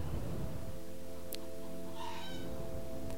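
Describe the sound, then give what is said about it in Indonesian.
A chicken calls with a drawn-out, nasal, tonal cry that holds for a few seconds, then gives a brief brighter squawk, with no one talking. “Duh suara ayam ya kedengaran gak?”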